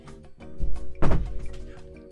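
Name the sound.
door being closed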